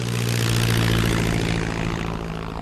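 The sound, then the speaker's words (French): A propeller airplane in distress with three people aboard drones loudly over wild desert land, trailing fire, its engine a steady throbbing hum with a buzzing roar that eases slightly toward the end. No voices are heard. “pour les trois occupants de l'avion en détresse”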